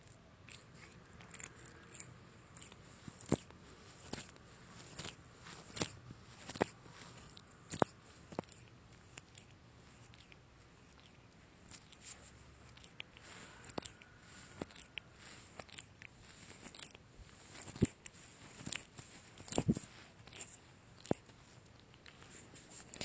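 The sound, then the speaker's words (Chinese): A big cat on a bed licks its chest fur: soft, wet rasping strokes and tiny clicks repeat in an irregular rhythm, quiet and steady against a faint hiss, with no one talking. “这是猫猫舔毛的声音。”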